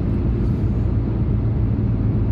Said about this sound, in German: Und oh, jetzt kommt hier so ein riesen Reisebus. Scheiße, muss bremsen